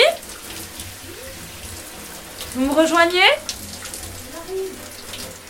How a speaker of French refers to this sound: Alors on fait vite couler le bain.